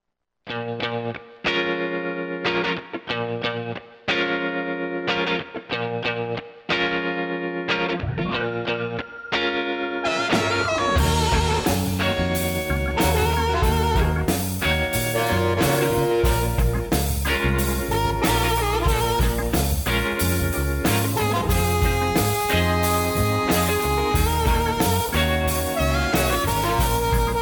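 A rock song plays with distorted electric guitar, opening with choppy rhythmic chords before drums and full band crash in around ten seconds and drive on steadily and loudly with no voices.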